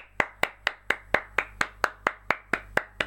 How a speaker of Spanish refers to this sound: Aplaudo yo solo porque no hay más nadie aquí que pueda ayudarme a aplaudir.